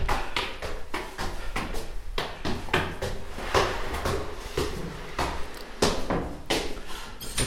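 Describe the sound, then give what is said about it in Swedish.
Doors being opened and shut on the way into an artist's studio in an old winegrower's house, with a busy series of clacks, bumps and latch clicks arriving irregularly. Handling noise and shuffling fill the gaps, and nobody speaks. “genom några dörrar så kommer vi in i själva ateljén som är ljus med vita väggar.”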